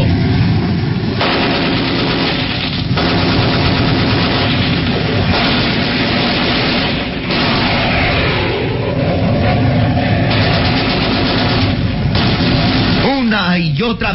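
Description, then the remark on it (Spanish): A jet engine roars loudly and continuously as the aircraft dives toward the ocean, a dense rushing howl with blast-like bursts, ending in a rising, sweeping whine. “un halcón al ataque, el jet se lanza en picada hacia el océano. El motor deja una estela luminosa, dando el aspecto de un cometa que se precipita al mar.”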